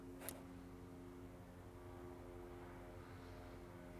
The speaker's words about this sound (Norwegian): Tror du det flyet er et fly?